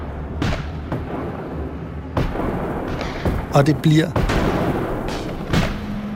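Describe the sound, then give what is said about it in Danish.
Sharp gunshots crack out irregularly over a rumbling, booming background of heavier fire, with a few bursts clustered together and a man speaking briefly over the din, as an army opens fire on rioters at Frederiksted. “Så hæren sætter ind meget hårdt. Og de begynder at skyde.”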